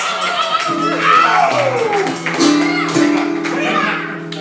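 Audience applause and cheering hold steady and fairly loud for several seconds, with a sliding whoop and sustained tonal sounds mixed into the dense clapping.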